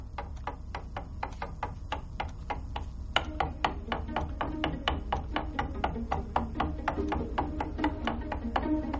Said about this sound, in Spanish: Repiquetea con los dedos sobre el reposabrazos.